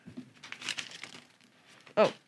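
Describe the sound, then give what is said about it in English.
Plastic wrapping crinkles and rustles as a package is opened, in a run of scratchy bursts ending with one sharp, louder crackle. “Don't open it under the table. Oh, I was trying to keep the Keep the sound down.”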